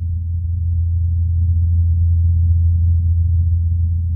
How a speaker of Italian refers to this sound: Ingenuity, che è una specie di piccolo elicotterino tipo un drone